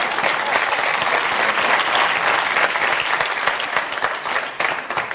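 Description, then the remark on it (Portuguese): An audience claps steadily throughout, a dense, continuous wash of many hands at fairly even loudness, with no voices standing out above it, applauding at the performer's request. “Portanto, inventa qualquer coisa e agora agradeci que aplaudissem só para me lembrar.”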